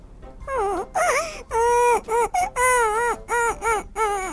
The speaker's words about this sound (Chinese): 听到某个地方传来阵阵哭泣的声音。 小鸟怎么了？